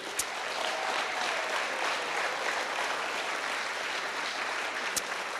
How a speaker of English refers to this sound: So could you give him a round of applause? That'd be great.